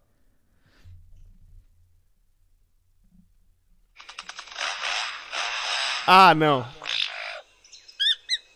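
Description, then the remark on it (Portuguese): A lyrebird imitates a person cutting a tree nearby: a rough, buzzing, saw-like drone lasting a few seconds, broken by a loud harmonic squawk and ending in quick chirps. A brief voice sounds at the start. “Sim, eu tenho aqui uma sequência inteira deles por longos períodos imitando uma, a, uma pessoal cortando árvore próximo deles, saca só.”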